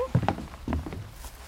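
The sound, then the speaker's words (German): A few soft footsteps walking outdoors, uneven, with a faint dull knock among them as someone walks down through a small gate, just after rain has stopped. “Ja, dann gehen wir einfach mal hier runter da durch ja. das Türchen.”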